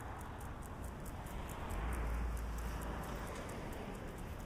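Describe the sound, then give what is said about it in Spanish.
A car passes by on the left at night, on a road with the sea to the right beyond a park with plants, its low engine rumble and tire hiss swelling briefly in the middle before easing back into steady outdoor background noise. “Va a pasar un coche a nuestra izquierda.”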